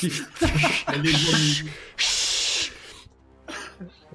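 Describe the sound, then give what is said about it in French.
A voice imitates a snake's hiss with a few drawn-out, breathy hissing bursts, some blended with voiced sounds. Fairly loud, trailing off into softer breaths. “De toute façon, ils peuvent pas vraiment siffler. Ce sont des serpents. Ils vont faire.”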